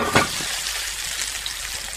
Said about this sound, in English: And it's very important that the, that oil is super hot so that we're getting them crisped up from the moment that we have we pop them into the oven. So let us hear a nice sizzle now when we get our potatoes on.